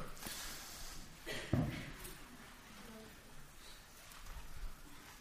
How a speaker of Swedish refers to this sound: Det saliga prasslet. Gött att höra.